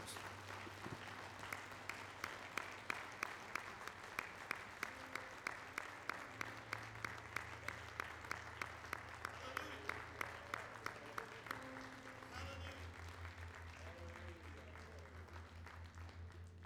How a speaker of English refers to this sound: Would you give the Lord a hand clap of praise and honor and glory in this house?